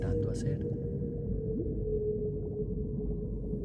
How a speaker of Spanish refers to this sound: por qué hay una ballena solitaria emitiendo un sonido sin respuesta durante todos estos años? ¿Tendrá conciencia que no hay nadie escuchando? ¿O acaso somos nosotros, los humanos, los que no podemos comprender lo que realmente está intentando hacer?